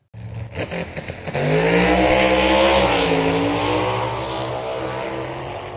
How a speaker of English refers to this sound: Question for you today How many of you like the excitement of a fast car with a loud engine?